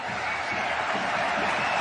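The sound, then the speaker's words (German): The spectators who are still present applaud steadily in approval, a dense, even wash of many hands clapping that holds at a constant level throughout, with no one speaking over it. “Für die Zuschauer, die noch da sind, gutieren das jetzt mit Beifall, wenn ich es richtig sehe.”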